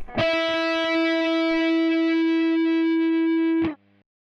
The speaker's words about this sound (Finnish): nyt mä soitin äänen, mm.